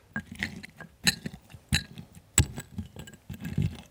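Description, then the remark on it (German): A cocktail muddler presses and grinds diced lime in a glass, with a steady squishy crunching broken by three or four sharp knocks against the glass. No one speaks. “Jetzt kannst du mit einem Cocktailstößel die Limette im Glas zerquetschen.”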